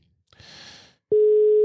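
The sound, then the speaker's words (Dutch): A short burst of hissy line noise, then a loud, steady telephone ringing tone starts abruptly as a call is placed and holds as a single pure beep, heard alone with no voices. “Bel. Vroeger hoorde je dan zo tuut, tuut, tuut, tuut.”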